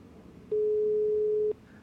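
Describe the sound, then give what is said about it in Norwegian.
A call is placed on a telephone: a single steady ringing tone on the line lasts about a second, clear and mid-pitched over a faint low hum, with no one speaking. “Du, jeg må ta en telefon.”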